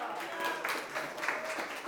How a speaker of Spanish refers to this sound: ¿Quién vive hermanos? ¿Quién vive? ¿Y a su nombre? Dele palmas fuertes al Rey, aleluya.